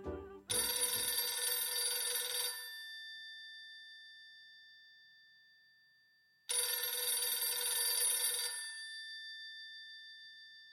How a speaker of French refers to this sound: Et puis un beau jour, le téléphone sonne dans l'appartement.